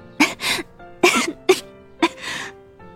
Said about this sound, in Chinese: 江城笑着笑着就开始咳嗽。剧烈的咳嗽让身体整个都颤抖起来